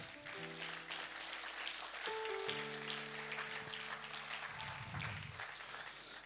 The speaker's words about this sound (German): Ist okay, ist okay. Geben wir ihm den Applaus. Schauen wir ihn für das. Er ist gut.